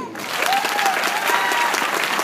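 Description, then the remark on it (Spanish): A burst of audience applause for the winning illustrator of a spring book contest, dense and steady clapping from many hands filling the whole moment, fairly loud, with a faint whistle-like tone briefly rising above it. “¿Quién es el ganador o la ganadora de la primavera del libro aplausos por el gran dibujante,”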